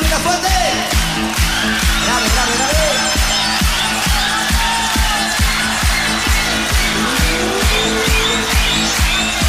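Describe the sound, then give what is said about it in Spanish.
A car engine roars loudly, held steady with a pulsing, throbbing rhythm and occasional high squealing tones, as if pulling away under hard acceleration. “¿Arranca o no arranca? Ahí está, chao.”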